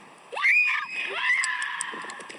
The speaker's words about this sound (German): Achtung, mein Schrei kommt gleich.